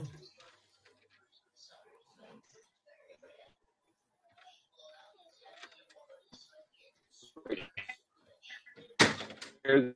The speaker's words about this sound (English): Yeah slam that door, girl.